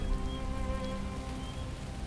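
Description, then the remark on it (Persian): Steady rain falls at night in a dense, continuous hiss with no break, and soft sustained musical tones hum underneath. “یادت اون شبی رو که بارون اومد خیلی خوب یادمه”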